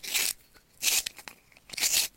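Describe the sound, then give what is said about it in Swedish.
A pencil sharpener sharpens a pencil, grinding in three short, scratchy bursts with brief pauses between them, fairly loud, with no voices. “Nej, det är pennvässare hör ni väl?”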